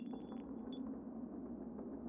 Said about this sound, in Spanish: Sería aproximadamente la una de la mañana cuando escuché un vidrio romperse en la cocina.